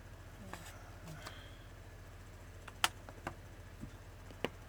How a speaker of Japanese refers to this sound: あ、雨が降ってる音がしますね。